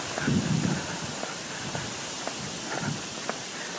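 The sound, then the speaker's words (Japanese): Steady footsteps of a person walking outdoors in strong wind at an even pace, each step a soft, short thud, with a constant hiss of wind noise underneath and a brief low murmur near the start. “はい、ということで歩いてます。”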